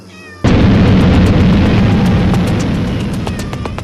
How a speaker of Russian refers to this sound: Кота-пчелы дребезжат крыльями и с боевым мявом преследуют меня.